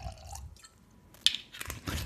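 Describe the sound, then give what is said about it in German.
Wine pours into a glass in short, uneven gurgles and splashes, with a brief bright drip-like spike partway through and a fuller trickle near the end, fairly quiet with no talking. “Was wolltest du haben? Ein Schluck Wein. Ein Schluck, geht doch.”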